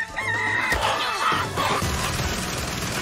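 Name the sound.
rooster crowing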